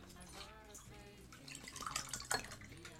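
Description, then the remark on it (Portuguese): Cold water pours or drips with a ringing, resonant tone, the sound growing splashier near the end with a couple of sharper bursts. “Ah, então, água gelada.”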